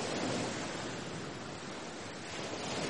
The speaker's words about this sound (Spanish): Luego acabó todo, y no quedó más que la oscuridad y el ruido del mar golpeando las rocas desnudas.